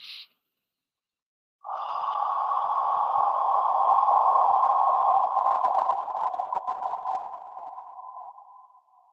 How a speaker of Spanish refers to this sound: eh, fue como me inició la primer sacerdotisa que tuve la bendición de conocer, me respiró en el oído de manera audible, eh, a ver si se escucha bien, eh, esta respiración de agua, así.